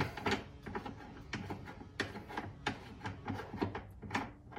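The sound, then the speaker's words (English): The case-mouth belling die being unscrewed from an ammunition reloading press, heard as a series of short, gritty metallic rasps and scrapes repeating in an uneven rhythm, moderately loud, with no talking. “Unscrew that.”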